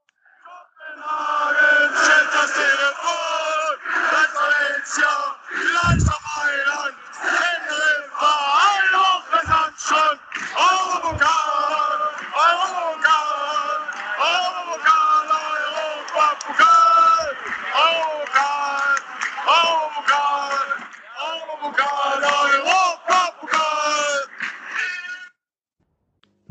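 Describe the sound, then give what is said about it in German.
A continuous, dense wash of many voices singing and chanting together, loud and sustained for about 25 seconds with rhythmic swells, a crowd chant in a recorded jingle, with a few sharp thumps. “jetzt kommt etwas, das kann er nicht stoppen, weil beim Urlaub kann er nur bei der, nach der An- und Abmord unser Jingle einspielen äh, und nicht sonst rausschneiden.”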